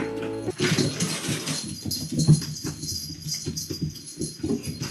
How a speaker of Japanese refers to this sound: ちょっと猫たちが エキサイティングしていますけど。